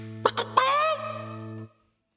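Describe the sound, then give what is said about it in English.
A short, loud jingle tag: a steady buzzing tone under two quick bursts and then a warbling, honk-like squawk, cutting off abruptly into silence after under two seconds. “that was the jingle for Fried Chicken Challenge”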